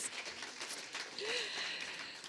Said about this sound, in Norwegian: Er ikke det bra? Gi meg en klapp, da. Jeg turte det.